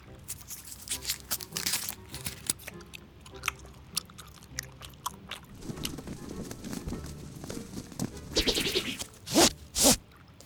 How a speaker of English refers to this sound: Let's start chewing. Thanks, Grabstack. Bring on the gum.